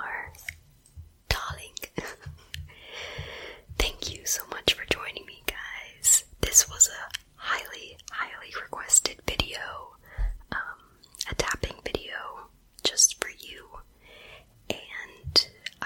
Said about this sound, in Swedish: du kommer få höra ett klipp här som är ASMR då